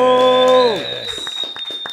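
A sustained harmonic tone slides downward and fades, then studio applause breaks out in scattered, uneven claps while a thin high whine lingers throughout.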